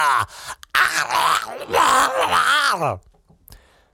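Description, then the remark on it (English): A man lets out a loud, drawn-out groaning moan, his voice swooping up and down in pitch for a couple of seconds before trailing off into near silence. “That's uh, his coital noise, just in case you don't know him that intimately.”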